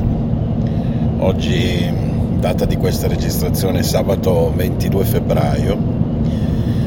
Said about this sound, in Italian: Allora, innanzitutto chiedo scusa per il rumore in sottofondo, ma siamo in macchina